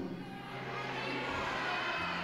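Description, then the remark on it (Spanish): A church audience shouts together the last words of a Psalm verse read aloud, in a sustained, loud roar, the mass of voices without any single speaker standing out. “Y alguien grite lo último, todo el mundo.”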